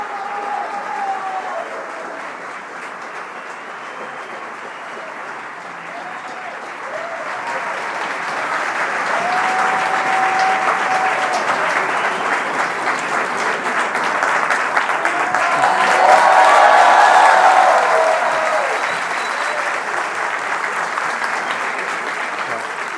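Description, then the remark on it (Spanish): Sustained audience applause at the start of a show, a dense wash of clapping that starts moderate and swells louder midway, peaking before easing slightly, with faint voices and whoops mixed into the crowd noise. “Esto, como no vamos a poner música por una cuestión de, copyright, esto van a decidir ustedes cuando arranca, cuando empieza un aplauso, el resto lo sigue y lo sigue más y lo sigue más y lo sigue más.”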